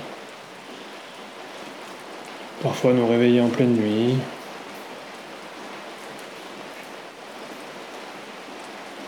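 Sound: rain falling outside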